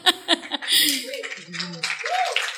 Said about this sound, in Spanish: Ese aplauso fue que me aturdieron. Casi se me pararon los pelos, ¿no?